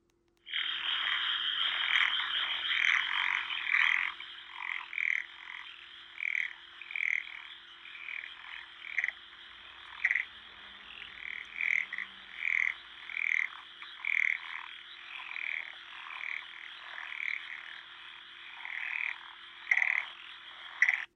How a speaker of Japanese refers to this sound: ということで、今回はあの、カエルの僕が録音した音とお別れしたいと思います。